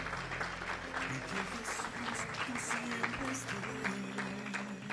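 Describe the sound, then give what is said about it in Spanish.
A crowd applauds loudly and steadily for Christ, following a prayer, for the full five seconds, dense clapping with a few voices calling out underneath. “Bueno, un aplauso fuerte a Cristo porque Él es el autor.”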